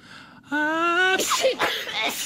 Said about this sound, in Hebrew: קולות של התעטשות.